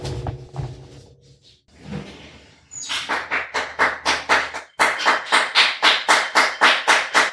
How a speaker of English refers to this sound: uh, can we go out for one minute? There's applause for all the healthcare workers oh, right sure. now.